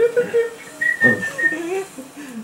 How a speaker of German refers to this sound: Ich pfeife so.